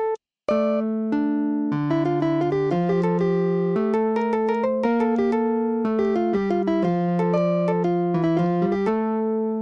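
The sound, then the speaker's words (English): A keyboard plays two interweaving melodic lines at once, a fugue theme set against its own inversion in the left hand, which begins after the upbeat, in a steady flow of clear, sustained notes with no one speaking. “So if I were to try and play these together, I have to take the upbeat into account and begin my inverted theme in the left hand here playing after the upbeat.”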